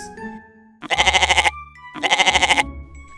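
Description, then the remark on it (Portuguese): A goat bleats twice, each call a loud, wavering, vibrato-like cry lasting about half a second, separated by a short pause, with no talking. “Era o cabra cabrês que lá estava de olhos arregalados.”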